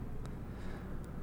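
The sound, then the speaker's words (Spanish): A helicopter drones overhead, a low, steady rumble with a faint pulsing throb that stays constant throughout, with no voices. “Un helicóptero. Un helicóptero.”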